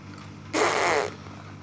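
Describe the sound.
A child blows a wet, buzzy raspberry with the lips, imitating a fart, in one loud burst lasting about half a second over a quiet background.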